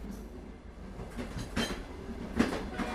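A train rumbles past on the rails, a steady low roar with rhythmic wheel clatter and brief metallic bursts, loud throughout.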